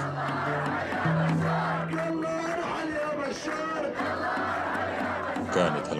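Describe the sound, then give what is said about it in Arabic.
A large crowd of protesters at a demonstration in the village of Al-Sahhara, Aleppo, chants loudly in unison, voices rising and falling in a steady rhythmic cadence, with sustained shouted tones carrying over a dense wash of crowd noise. “أعطينا أمثلة لبعض المظاهرات أو الأحداث اللي رفعت فيها الشعارات وغيرها مثلا بقرية السحارة الحلبية تواجد هتاف”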